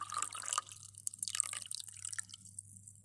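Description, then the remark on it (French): Tap water splashes and gurgles into a glass toothbrush jar as a man fills it, a hissy, bubbling pour that tapers off into scattered drips over a low steady hum. “Magnus, vida le bocal de brosse à dents et le remplit d'eau.”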